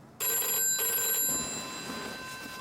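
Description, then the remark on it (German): A telephone in a hotel room in Paris, 1964, rings at night with a shrill, sustained electronic trill that starts abruptly and carries on at a steady, fairly loud level, with no voices. “Er greift zum Telefon.”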